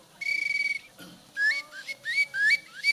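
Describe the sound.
A small wooden whistle imitates a nightingale: a sustained, warbling trilled note, then a quick run of bright rising chirps and sliding notes, fairly loud and alone without any talking.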